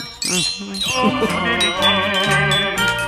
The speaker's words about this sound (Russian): Слушайте, а вот к нам приходили э, люди, которые отлично играют на ксилофоне, но судя по тому, как вы играете, в принципе, можно беспорядочно так нажимать. Умеют, умею только я. Беспорядочно Конечно. нажимать эти пластины, и будет звук идеальный, да?